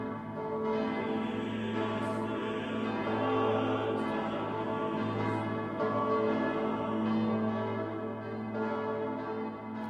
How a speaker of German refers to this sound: Und danach läuten im Radio alle Glocken von allen Domen auf der ganzen Welt. Sogar der Kölner Dom ist dabei.